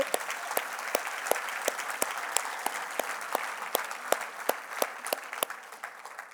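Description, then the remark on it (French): A church audience applauds the church's volunteers steadily, a dense wash of clapping with sharper individual claps popping out, fading slightly toward the end with no voices. “Et est-ce qu'on peut donner une main d'acclamation?”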